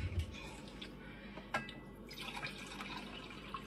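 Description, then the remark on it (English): Water pours steadily into a coffee pot to make coffee, a continuous splashing trickle with a few sharper drips and clinks, fairly quiet and with no one talking. “Pour my water into my coffee pot.”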